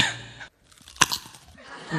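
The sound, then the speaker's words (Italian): A sharp, crisp crunch of someone biting into a raw carrot, followed by a few moist, crackly chewing sounds, with breathy noise at the start and end. “addentando una carota. La masticazione.”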